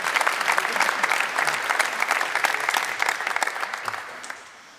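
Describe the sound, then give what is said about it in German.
An audience applauds steadily for a guest who stood up and gave his opinion, dense overlapping hand claps forming a bright, crackling roar that holds for several seconds before thinning out and fading at the end. “Ich finde, das verdient einen Applaus, dass er sich hierher gestellt hat und seine Meinung kundgetan hat.”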